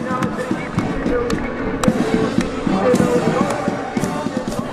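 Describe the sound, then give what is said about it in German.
A festive crowd celebrates outdoors at the Festival of Letters in Varna, a big celebration of the Cyrillic language: a steady wash of many overlapping voices punctuated by scattered sharp pops and thumps, with no single speaker standing out. “während der großen Feier für die kyrillische Sprache, die wir hier im Hintergrund hören, das Fest der Buchstaben in Warna.”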